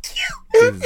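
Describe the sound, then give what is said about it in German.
A single sharp sneeze, a loud breathy burst that quickly falls away, followed by a short, high, whining voiced sound. “Gesundheit.”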